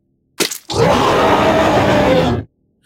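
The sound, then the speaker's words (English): A creature whose tail has just been severed by a blade lets out a loud, harsh, rasping scream that holds steady for nearly two seconds, right after a brief sharp burst, then cuts off abruptly. No one speaks. “The creature screamed an unearthly scream and ran into the forest.”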